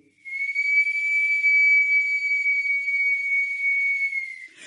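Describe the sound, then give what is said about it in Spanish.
A single long, steady blast from a cemetery caretaker's whistle, signalling that the cemetery is about to close, shrill and sustained for about four seconds before cutting off, heard clearly and alone. “Así que los dos se sorprendieron cuando de pronto sonó el silbato del cuidador del cementerio.”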